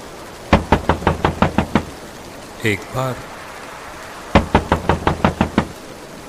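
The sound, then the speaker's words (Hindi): Two rapid bursts of about eight sharp knocks on a wooden monastery door, loud, with a short spoken phrase in between and a faint steady hiss underneath, during a raging storm of wind and rain. “आगे बढ़कर मठ के दरवाजे को खटखटाया”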